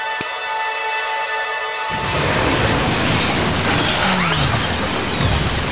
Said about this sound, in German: Die gut gemacht Grünäuglein-Maschine hat sich gerade in alle Einzelteile zerlegt.